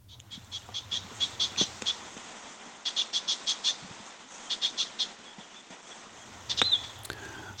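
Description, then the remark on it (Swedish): An icterine warbler gives repeated alarm calls at a site where the young have just left the nest: quick bursts of short, sharp, high notes in rapid series separated by brief pauses, over a low, steady background rumble. “Ja, det är en mycket typisk härmsångare.”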